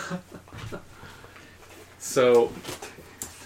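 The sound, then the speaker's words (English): A small female Shih Tzu Yorkie poodle mix dog lets out one short, loud, high-pitched whimper partway through while a person talks quietly around it. “She's a Shih Tzu Yorkie poodle”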